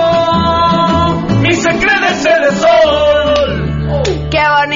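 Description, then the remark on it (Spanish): A loud, drawn-out Mexican-style grito, a high wavering yell that rises and falls, rings out over steady instrumental music with a sustained low bass, strong throughout. “Grito sangre azteca.”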